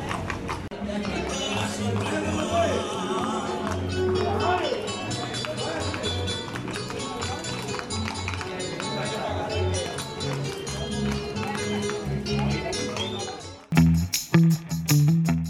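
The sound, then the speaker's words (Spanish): Horses' hooves clatter in a dense, continuous stream as a typical cavalcade passes in the town of Jericó, in southwest Antioquia, with a busy, noisy background throughout and a few louder knocks right at the end. “Este es el sonido de una cabalgata típica de mi pueblo.”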